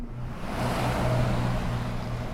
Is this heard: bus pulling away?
yes